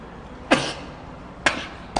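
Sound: sneeze or cough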